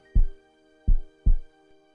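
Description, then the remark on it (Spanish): A deep, thumping heartbeat sound effect: three low, muffled beats, the last two in a quick lub-dub pair, over a faint steady hum with no voices. “¿Y tú? ¿Escuchas a tu corazón?”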